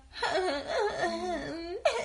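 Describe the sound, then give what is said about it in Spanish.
A voice imitates a crying, abandoned-sounding puppy, mimicking the sound a person makes while asleep, letting out a continuous, wavering whimper that rises and falls in pitch for about two seconds, ending in a short higher yelp. “Parece un perrito que está llorando así, que lo han abandonado.”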